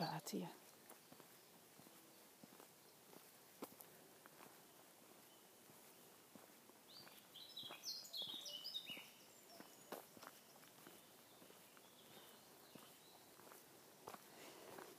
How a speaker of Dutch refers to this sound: ik vind het altijd fijn om te luisteren naar mijn voetstappen. die ik op van die paadjes met keitjes. En dan, ja, ik vind dat gewoon prettig. Het geluid dat mijn schoenen dan maken. Dat brengt mij ook rust.